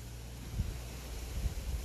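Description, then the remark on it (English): Steady breathy rustling of wind through trees, with low rumbling buffets from gusts swelling twice over the couple of seconds. Fairly quiet and continuous, with no voices. “Sorry, more rustling of the trees. I'm just going to let this rustle go through because that's a hell of a gust.”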